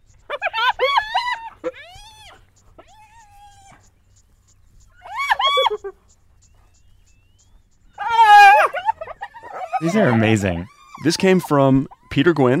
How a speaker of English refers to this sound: he recorded this in the Masai Mara in Kenya, which is part of the Serengeti ecosystem. Um, what you're hearing is a clan of hyenas. They're stealing a freshly killed buffalo calf from lionesses who hunted it.